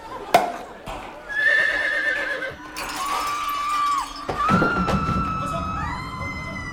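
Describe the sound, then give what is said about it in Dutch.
A horse neighs and whinnies several times, loud, with the high wavering calls rising and falling. A few sharp hoof clops land now and then between the calls. “Het paard laat wat vallen. Iedereen lacht.”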